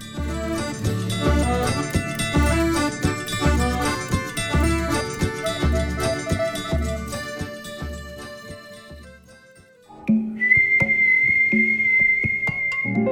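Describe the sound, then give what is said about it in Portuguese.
Rhythmic music with a strong beat plays, then briefly drops away before a clear, high whistled tune introducing Rádio Novelo Apresenta rings out over lighter backing near the end. “Se você reconheceu esse assobio, então o episódio dessa semana com certeza é para você.”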